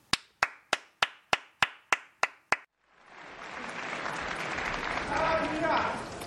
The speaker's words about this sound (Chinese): 我们闲话少叙，那我们就来听一听啊，由马季老先生为大家带来的这个节目，叫做《宇宙牌祥言》，大家鼓掌欢迎。